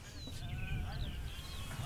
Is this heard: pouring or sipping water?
no